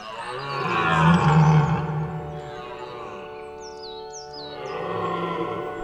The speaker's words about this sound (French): Il pousse un brame et de sa triste plainte, il emplit cette forêt qu'il aime tant.